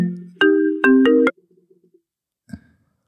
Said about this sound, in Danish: det er Andreas, der ringer, så hvis I lige siger stille